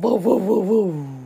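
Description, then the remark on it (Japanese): A mother's single voice, attempting a dog's bark, comes out like a motorbike engine, rising and falling in three quick revving pulses before trailing off into a lower, steady drone. “ウォそれバイクだよワンワンワンワンだって犬の鳴き声難しくない”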